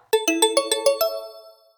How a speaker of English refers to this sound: we got a subscription for an opening bell?